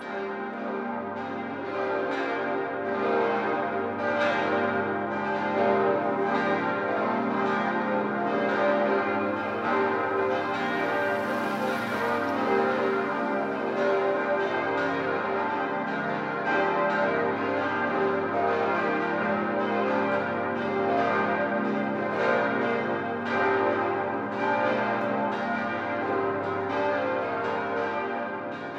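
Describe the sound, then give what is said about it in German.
A full peal of church bells from the parish church of St. Paul in Munich, Bavaria, a neo-Gothic church by the Theresienwiese, rings continuously, several bells overlapping in a dense, steady wash of deep and bright tones with a sustained ringing hum, no voices present. “Das Geläute, dem wir gerade lauschen, gehört zur Pfarrkirche St. Paul in der bayerischen Landeshauptstadt München.”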